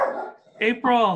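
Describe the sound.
A couple of short, sharp barks from a female pet dog ring out, overlapping with a person laughing and speaking a word.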